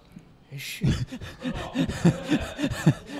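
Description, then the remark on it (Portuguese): A run of coughing: one sharp burst, then about eight short, rough, throaty coughs in a quick, fairly even rhythm, moderately loud, with no talking. “O cara dá, uma- dá uma tossida dessa.”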